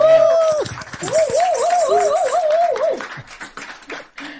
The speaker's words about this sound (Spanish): ¡Aplausos!